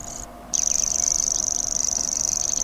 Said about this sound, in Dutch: Dit is de springkaanzanger. Het klinkt als een soort wiel met een... Eh, kaartje in.